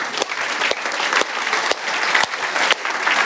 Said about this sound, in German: Ich glaube, ich gebe mal meinen Applaus.